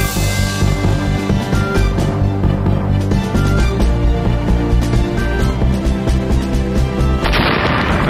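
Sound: explosion sound effect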